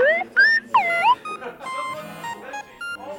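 A mobile phone rings with a bright, chirpy electronic melody of rising and sweeping tones, fairly loud, followed by a busier jangle of tones as the ringtone continues.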